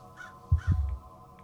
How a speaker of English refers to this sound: The crow hollered once more.